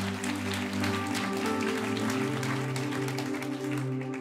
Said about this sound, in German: Es ist so schön, dass ihr dabei seid. Hey, der Applaus ist für euch.